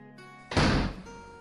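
A door swings shut with one solid, loud thud that quickly fades, set against a faint, steady background hum with no voices.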